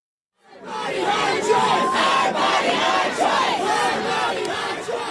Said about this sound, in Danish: Min krop, mit valg, råber demonstranter, der i denne uge samledes foran højesteretsbygninger i USA's hovedstad D.C.